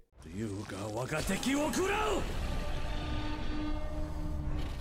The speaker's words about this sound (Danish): Jeg synes lige, vi skal høre, når Hanzo han skyder sin pil af.